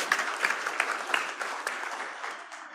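A crowd claps steadily, a dense patter of many hands with a few sharper claps standing out, gradually thinning and fading toward the end.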